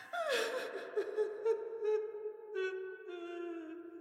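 A young woman weeping, a high, wavering wail broken by short sobbing catches and breaths, continuing for several seconds with no speech.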